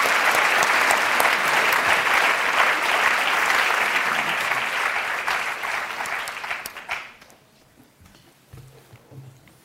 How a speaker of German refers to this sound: Applaus